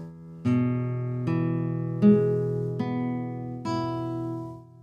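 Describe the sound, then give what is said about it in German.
An E major chord on guitar, picked slowly one string at a time with five clear, evenly spaced attacks, each note ringing on into the next with no talking. “Das mache ich jetzt nochmal bei E-Dur.”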